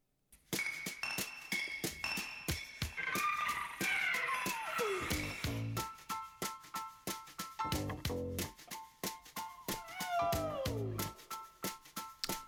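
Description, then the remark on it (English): A song passage with a busy, rhythmic backing where a voice bends and slides through high, wailing notes that sound like cat meows, repeating twice over steady beats. “Dude, that kind of sounded like a cat.”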